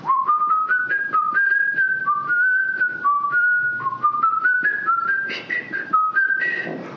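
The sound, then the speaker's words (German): A person whistles the classical melody In the Hall of the Mountain King by Edvard Grieg alone, clear, in a steady run of stepping notes that climbs gradually in pitch over several seconds with no talking. “Und äh, ich glaube gar nicht, ich hatte es gar nicht so lange gepfiffen, wie ich die jetzt gerade,”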